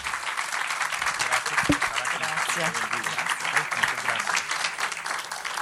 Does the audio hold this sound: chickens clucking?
no